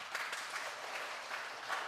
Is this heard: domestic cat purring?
no